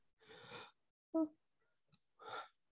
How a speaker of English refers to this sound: Sorry, guys, I yawned.